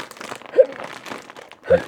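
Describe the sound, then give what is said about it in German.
Dry crinkling of a plastic bag being tugged and worked open, with scattered rustles and two sharper crackles, one near the middle and one near the end. “Ich habe ja ein übelstes Spezialgerät, um die blöde Tüte aufzumachen.”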